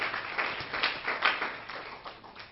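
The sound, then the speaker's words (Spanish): An audience at a worship service applauds together as an offering of applause to the Lord, a steady wash of many hands clapping that swells and dips slightly over a couple of seconds, with no voices standing out. “Le damos una ofrenda de palmas al Señor”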